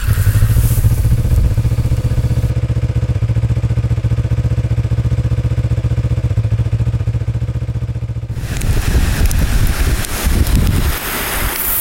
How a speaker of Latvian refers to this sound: fonā sprakšķi ugunskurs. Nu, droši vien skaļāk par to čalo upīti. Kalnu upīti, kas smeļās savu spēku no sniega.